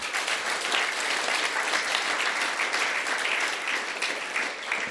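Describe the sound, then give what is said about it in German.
Steady, dense audience applause at a church fills the whole five seconds, given for the courage of people standing on the stage, many hands clapping at once in a continuous, even wash of sound with no voices standing out. “auch ihnen einen herzlichen Applaus für ihren Mut, hier auf die Bühne zu stehen.”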